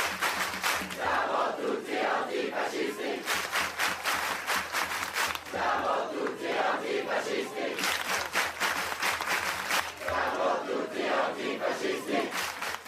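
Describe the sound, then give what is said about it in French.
A crowd of left-wing activists opposed to the Lyon-Turin train line chants the antifascist slogan "Siamo tutti antifascisti" in loud unison, the phrase repeating in a steady rhythmic cadence with brief pauses between rounds, voices strong and continuous throughout. “un slogan antifasciste qu'on entend de plus en plus dans les manifestations de gauche et qu'ont encore crié ce week-end les militants opposés à la ligne de train Lyon-Turin.”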